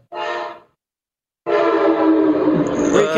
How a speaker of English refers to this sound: Uh, that's a train out here, yeah.